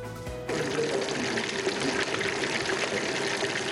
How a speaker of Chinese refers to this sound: 油锅滋滋作响，油炸安康鱼美味不输鸡块，再淋上热腾腾的咖喱，试吃会上获得一致好评。